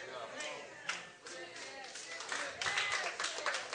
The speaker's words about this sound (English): That you can applaud. That's a good word. We're supposed to applaud.